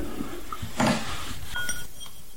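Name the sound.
glasses clinking together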